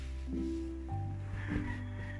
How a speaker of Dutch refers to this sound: Ik hoor haar snurken.